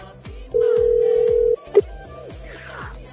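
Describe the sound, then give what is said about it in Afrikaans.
A single steady ringback tone from an outgoing phone call sounds for about a second, followed by a brief blip, with faint low rhythmic thumps underneath. “Ooh, dit lei.”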